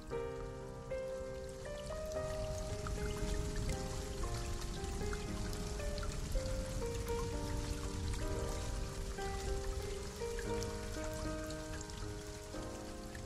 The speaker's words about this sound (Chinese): 雨越下越大，渐渐的我的手臂都被淋湿。